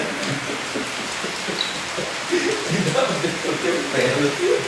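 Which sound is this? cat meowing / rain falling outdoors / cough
rain falling outdoors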